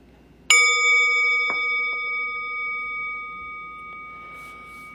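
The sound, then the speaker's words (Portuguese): A meditation bell is struck once at the end of a meditation practice, ringing out with a bright, clear tone that hums and slowly fades over several seconds in otherwise quiet surroundings. “Então eu vou convidar o sino a soar uma vez, mas não precisa se mexer correndo.”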